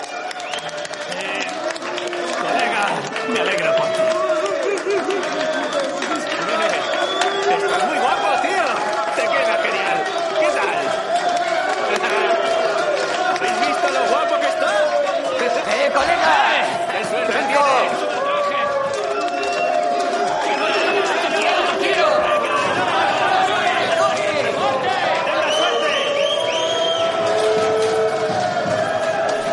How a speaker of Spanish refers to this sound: En una cárcel masculina, los reclusos aplauden ante una celda. Al poco de esta sale un hombre de unos 35 años vestido con un traje blanco. Es el día de su boda.